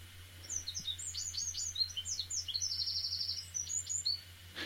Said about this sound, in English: Now, if you listen to a wren, and you will both get these, they sing the same phrase over and over again.